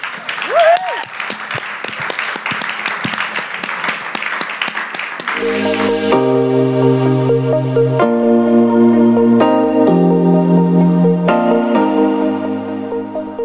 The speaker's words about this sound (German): Ich danke euch vielmals, dass ihr so transparent erzählt habt von eurem Leben, von eurer Ehe. Lass uns ihnen einen Applaus geben für das.